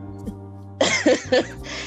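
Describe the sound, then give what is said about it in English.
A harsh coughing fit of about three rough bursts in quick succession after a quiet start, from a person recovering from an illness, with a low steady hum underneath and no talking. “I do have some coughing every now and again, so I can't get too tickled with you today,”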